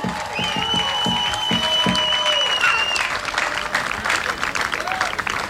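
An audience applauds steadily with dense, sustained clapping throughout, a few whistles rising briefly above the crowd noise near the start, applauding Sanita Mūžniece after her speech as minister.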